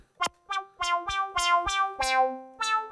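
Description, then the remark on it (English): A series of about eight synthesizer notes plays at a steady pace, each starting with a bright plucky attack and then settling into a softer, lingering tone that fades gradually, with a small attack, sustain and release turned down, and some filter decay added. No one speaks. “I'm giving now some decay.”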